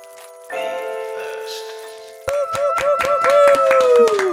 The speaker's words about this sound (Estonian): ma plaksutan ka iseendale.